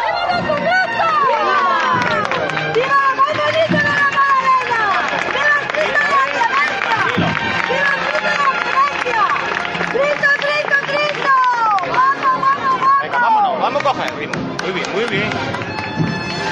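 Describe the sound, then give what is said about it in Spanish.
A dense, steady murmur of many voices fills the whole stretch, loud and unbroken, with overlapping chatter rising and falling as a large crowd gathers for the Holy Week departure of the Santísimo Cristo de la Clemencia procession. “Bueno, pues mientras seguimos escuchando la salida del Santísimo Cristo de la Clemencia con esa incertidumbre que nos están dando los radares eh, meteorológicos, vamos a ver qué pasa.”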